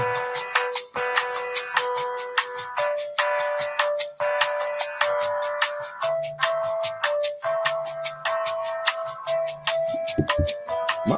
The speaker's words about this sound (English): And elevated music, here we go.